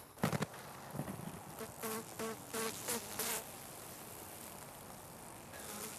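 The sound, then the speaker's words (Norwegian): Honeybees buzz around eleven beehives kept as a hobby, their drone rising and fading in short bursts as individual bees pass by, over a steady outdoor hiss. “som har elleve bikuber han passer på. For ham er biene blitt en morsom hobby.”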